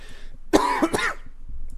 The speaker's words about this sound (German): Erstmal husten erstmal husten.